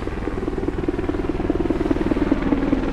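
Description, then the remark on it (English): A helicopter circles right overhead near the US–Mexico border, its rotor beating in a rapid, rhythmic thump over a low, rumbling engine roar that stays loud and close throughout, with no voices present. “There's a, a helicopter flying right over me right now. It's just circling overhead.”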